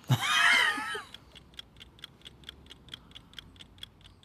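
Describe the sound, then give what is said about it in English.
After a brief shrill, warbling squeal, a steady run of crisp mechanical ticks follows at a quick even pace, many clocks ticking together. “we used to have to take all the clocks out of the house, out of the room where she was, because she couldn't stand the, the sound of even the ticking.”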